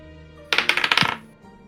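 Dice clatter across a hard surface: a quick burst of sharp, bright clicks and rattles lasting under a second, fading as they settle, with no voices.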